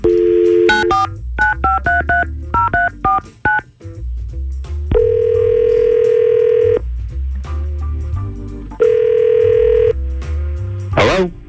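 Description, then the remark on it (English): A rapid string of about a dozen touch-tone dialing beeps, followed by two long, steady ringback tones on the line, clear with no talking, as the Y100 radio show places a call to a listener. “Let's try to call Greg right now and see what's going on.”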